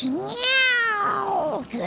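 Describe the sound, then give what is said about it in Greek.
A person imitates a cat with one drawn-out, rising-then-falling meow, loud, alone without other talk. “εμένα αλλά ας μη νιαουρίσω τώρα.”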